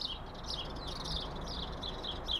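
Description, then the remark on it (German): Sparrows chirp continuously in a busy, overlapping chatter while pecking at crumbs on the ground between a table and chairs, over a soft steady background hiss. The chirping stays fairly quiet throughout. “Sie scheucht dabei andauernd ein paar Spatzen weg, die nach den Krümeln picken.”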